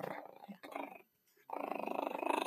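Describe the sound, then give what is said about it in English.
A dog named Daisy, live in a studio, growls low and rumbling in two bursts, the first broken into short pulses, then a brief pause before a longer, steady growl. Fairly loud, with no talking. “Growl it and Daisy bite it”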